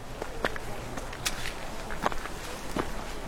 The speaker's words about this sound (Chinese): 就是脚踩到那个泥泞的那个 嗯 声音，它的那个细节露出的还挺多的。